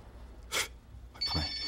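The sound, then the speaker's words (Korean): A brief rustling burst, then a telephone starts ringing with a steady, bright electronic tone that carries on to the end as an unfamiliar number calls. It sounds moderately loud, with no one speaking. “이거 혹시 면접 보러 오라는 전화인가?”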